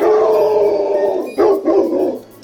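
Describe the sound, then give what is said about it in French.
A dog howls in a long, sustained wavering tone, then breaks into a couple of sharp barks before trailing off. Fairly loud, with no talking. “Non mais c'est pas vrai ce chien, j'y crois pas que c'est pas vrai que j'y crois pas.”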